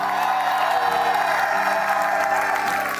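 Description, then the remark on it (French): An audience shouts and cheers loudly and continuously for Jesus Christ, a dense wash of many voices with some applause mixed in, sustained at full volume throughout. “Est-ce que quelqu'un peut crier pour Jésus ici oh?”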